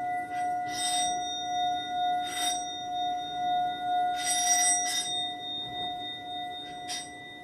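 An orin, a Japanese Buddhist singing bowl, played by two elementary school children for Tanabata, rings out with steady, pure sustained tones that hang on throughout, while soft swishing strikes or rubs recur every second or two, gently pulsing the shimmering overtones.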